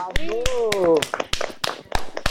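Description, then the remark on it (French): Scattered applause from a studio audience: about a dozen sharp, irregular handclaps ring out while a voice speaks over the first half, then the claps continue unevenly on their own. “Ça mérite des applaudissements hein, derrière.”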